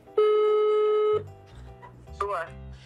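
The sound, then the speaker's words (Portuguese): A single long, steady ringback tone sounds through a phone on speakerphone for about a second, slightly tinny and loud, as a call is placed to the speaker's aunt for a prank telemarketing call, followed by quieter indistinct voices. “Vamos ligar pra minha tia.”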